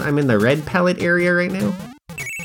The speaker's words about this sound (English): That's the sound of me hitting a bell, which is a checkpoint.